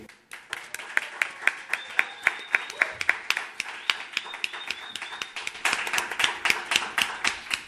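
An audience applauds steadily, a dense wash of many hands clapping, with sharper individual claps landing in a fairly regular beat. It swells a little louder toward the end.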